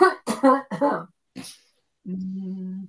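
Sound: cough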